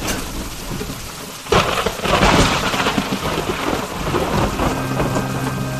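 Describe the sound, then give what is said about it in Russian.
A night thunderstorm: steady heavy rain hisses throughout, then a sharp crack of thunder breaks in and rolls on loudly, rumbling under the downpour before settling back into the rain. “На утро после грозы, в день рождения Рафаэля, 28 марта к его дому пришло множество людей.”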